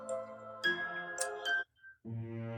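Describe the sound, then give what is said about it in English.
A bell tolls in several loud, resonant strokes, each ringing on with rich sustained overtones and a bright metallic shimmer before the next strike. No one speaks. “It is with that that once again a bell tolls.”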